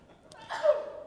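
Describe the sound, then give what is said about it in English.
A single quick sneeze, a short breathy burst with a sharp peak that fades out within a second, fairly quiet and with no talking around it. “Bless you.”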